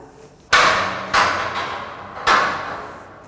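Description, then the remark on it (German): Footsteps clang on metal scaffolding stairs set up inside a building so children can reach the outside metal fire-escape stairway: four loud, ringing impacts at an uneven pace, each with a bright metallic decay that lingers between steps. No one speaks. “Im Gebäude selbst wurden in jedem Stockwerk dafür abenteuerliche Metallgerüste zum Draufsteigen aufgestellt, damit die Kinder die Metalltreppe außen überhaupt erreichen.”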